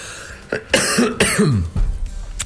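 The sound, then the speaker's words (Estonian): A short burst of coughing and throat clearing caused by a tickle in the throat, two or three rough bursts in quick succession, fairly loud against a quiet background with no talking. “Sorry, ma siin suren vahepeal selle kurgu kõditusega.”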